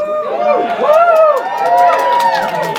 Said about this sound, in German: Der Saal bricht in Jubel aus, als der Titel des Films erscheint, der erste von vielen emotionalen Ausbrüchen in den nächsten 99 Minuten.